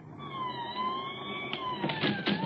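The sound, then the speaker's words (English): A police siren wails steadily with sustained sweeping tones over a low engine rumble as police cars draw up before 3742 Waverly Court, fairly loud, with a few sharp bursts of extra noise near the end. “The police cars were drawing up before 3742 Waverly Court as I arrived.”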